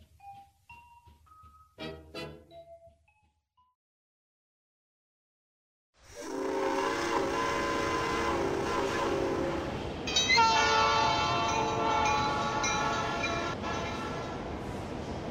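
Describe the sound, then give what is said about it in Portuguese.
A train from Newton to Boston starts up after a few short tonal chimes and a pause, its loud rumbling roar and sustained horn tones swelling and carrying on steadily to the end. “Vocês pegam o trem de Newton para Boston.”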